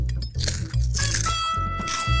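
Loud crunching of a Flamin' Hot Cheeto, a series of crisp, crackly chews in quick succession lasting a couple of seconds, with no talking.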